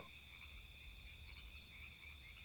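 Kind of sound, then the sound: animal, frog croaking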